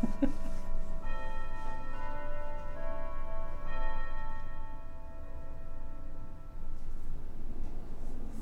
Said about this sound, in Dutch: klokslag 12 uur.